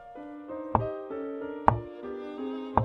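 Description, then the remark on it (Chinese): Three soft knocks on a door, spaced about a second apart, each a brief dull thud over a sustained, gentle musical tone. “直到有一天，他听到了轻轻的敲门声。”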